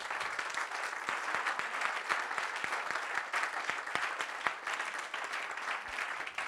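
Scattered applause from about seven people at a sermon, with distinct individual claps popping out irregularly over a steady, moderately loud patter that continues throughout.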